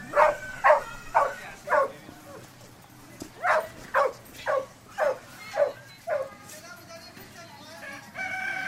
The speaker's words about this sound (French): Et puis, il y avait aussi ces chiens qui rôdaient autour de la basse-cour et qui aboyaient toujours. Ça me terrorisait et je me suis dit que je ne pouvais pas vivre éternellement dans cette peur.